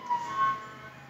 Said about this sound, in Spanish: No sé si escucha el ruido de la policía allá afuera, pero no hay policía allá afuera que espero que no vengan por mí.